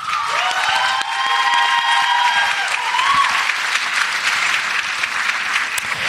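Steady, dense audience applause fills the whole stretch, many hands clapping at an even loudness, with a few high whoops and cheers rising over the clapping in the first seconds.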